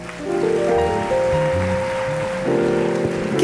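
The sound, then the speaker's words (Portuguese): An audience at a Christian prayer gathering claps steadily in a dense, continuous wash of applause, with sustained keyboard or organ tones playing underneath throughout. “Quem aqui pode aplaudir?”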